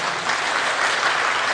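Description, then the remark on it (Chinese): A steady burst of crowd applause, dense and loud throughout, with many hands clapping together in an even, unbroken wash and no voices on top, given in thanks to Environmental Protection Administration officials at a Changhua County event. “那在这边谢谢大家掌声，谢谢我们环保署的长官们哈。”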